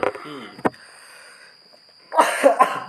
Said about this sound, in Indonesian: maaf nih kalau misalnya gue banyak batuk ya coy ya ya sorry but lagi nggak ini sih tenggorokannya lagi nggak enak